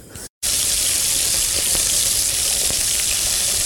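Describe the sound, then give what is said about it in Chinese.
Cauliflower and pumpkin sizzle in butter and olive oil in a pan, a loud, steady, bright hiss with faint crackles throughout. A split-second gap interrupts it near the start, and nobody speaks. “锅里面呢，菜花先放进去，炒香了，再给它把南瓜放进去，也炒香了，再把鹰嘴豆放进去，往里面放一点盐跟胡椒粉。”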